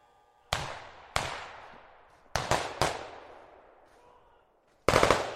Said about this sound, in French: À 9h30, des coups de feu ont retenti entre les tours de la Castellane. Une dizaine de personnes armées de fusils d'assaut ont tiré en rafale dans la cité des quartiers nord.